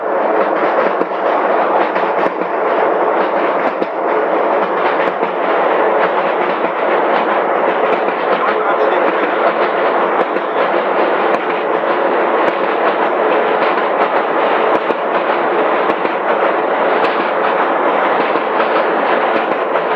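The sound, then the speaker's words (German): A loud, continuous roar of a diesel mine locomotive (a "Dieselkatze") carrying riders through an underground mine, loud enough that hearing protection is required, a steady engine drone with rattling, clattering wheels on rails and no talking, unbroken for the whole stretch. “Äh, und jetzt hört man auch, warum wir gebeten wurden, noch einen Gehörschutz anzuziehen, wenn wir mit der Dieselkatze fahren.”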